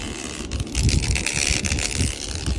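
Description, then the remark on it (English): The camera of a new iPhone makes a continuous rattling buzz with a harsh, mechanical texture, fairly loud, sustained for a few seconds with slight fluctuations and no voices. “the fancy new camera, whatever it does that's fancy and new, because there always is that with a new iPhone, it evidently makes a rattling noise”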